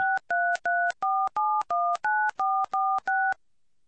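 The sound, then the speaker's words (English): A rapid series of ten touch-tone keypad beeps, each a short steady dual-pitched tone with brief gaps between, as a host PIN is entered on a phone to call into a Blog Talk Radio show. “Please enter your host pin. When finished, press the pound key.”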